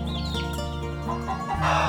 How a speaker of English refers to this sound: Did the rooster wake them up too? Yes, even the little baby chicks are awake. Cheep, cheep, cheep.